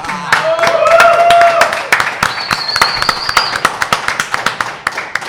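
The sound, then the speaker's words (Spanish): Applause from a small group, dense and continuous at first, then thinning into scattered individual claps. Brief whistles or cheering tones sound over it early on. “¡Listo! Un aplauso para”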